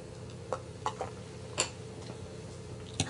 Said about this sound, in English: I have a cup of water right here that my wife gave to me. Because sometimes my throat will get dry, I'll take a drink like right now.